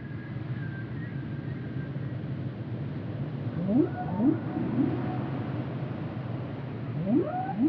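A humpback whale calls in a series of rising, swooping moans, several sliding upward in quick succession, heard against a steady underwater rumble with no talking, during an attempted dialogue with the whale featured in the France Culture series Oubliez Moby.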